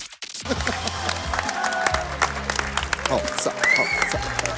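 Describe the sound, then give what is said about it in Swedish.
A crowd at Experium cheers and claps loudly and continuously, a dense wash of applause with scattered whoops and shouts rising over a low murmur of voices. “Vilket jubel! Vilket jubel!”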